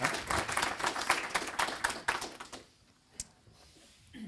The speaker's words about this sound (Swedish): Varmt välkommen, han får en varm applåd.